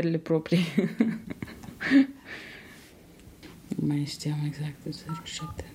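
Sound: telephone number being dialed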